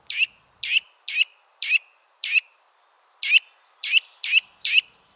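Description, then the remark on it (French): A Eurasian nuthatch gives a series of loud, emphatic territorial calls, about nine sharp repeated notes in two bursts separated by a short pause, clear with no other sounds. “Je vous invite à découvrir les cris et chants d'un de mes oiseaux préférés, la citelle torche-peau.”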